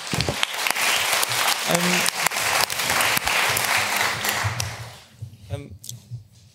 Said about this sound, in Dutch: Geef er een warm applaus.